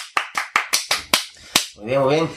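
A short burst of about eight sharp, evenly spaced claps, loud and crisp, applauding a listener who sent requests, followed by a brief rising vocal cry as the clapping stops.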